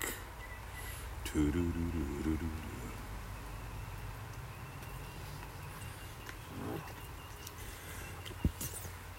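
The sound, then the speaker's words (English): Outdoor ambience with a steady low rumble of passing traffic, while a few faint, scattered bird chirps rise briefly above it. “Here come the birds, in some traffic.”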